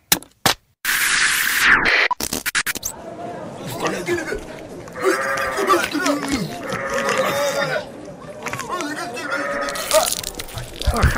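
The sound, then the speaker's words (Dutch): A sheep bleats repeatedly in wavering, drawn-out cries, loud, with excited chatter and background voices mixed around the calls, as its throat is cut as a wedding offering at an asylum seekers' centre. “nou snij ze zo dat schaap eh, de keel In ons cultuur is heel normaal gebeurd.”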